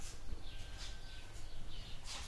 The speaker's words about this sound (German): dass ihr die Vögel ein bisschen hört.